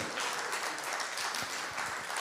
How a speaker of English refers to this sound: Clap, shout, scream, say something.